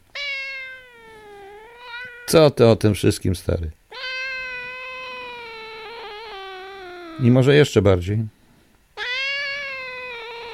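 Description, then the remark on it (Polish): A cat gives three long, drawn-out meows, each steady and wavering slightly in pitch, with a man's brief spoken remarks breaking in between them. “No widzicie, kot na sam koniec.”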